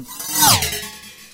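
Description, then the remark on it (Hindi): A short rush of water in a bathroom being cleaned, swelling to a loud splashing peak with a falling, whooshing tone before easing off into a softer trickle. No one speaks. “bathroom साफ कर रही है चलो अब खुद देख लो”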